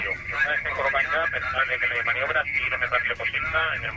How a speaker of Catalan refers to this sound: Sentiu la ràdio de fons a tota intensitat?